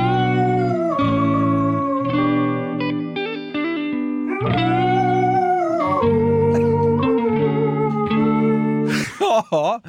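Distorted, effects-heavy music blended with a dog's drawn-out whining and howling, long wavering pitched cries sliding up and down, ending in a quick series of rising and falling yelps.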